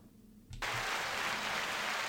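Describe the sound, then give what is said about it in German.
Applause bursts in abruptly after a brief quiet moment, a dense, steady hiss of many clapping hands that holds at a fairly loud level to the end, with no voices. “Oh, das wäre doch nicht nötig gewesen, der Applaus.”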